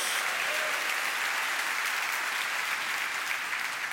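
A church audience applauds the Lord steadily for several seconds, a dense, even wash of many hands clapping at constant loudness with no voices standing out.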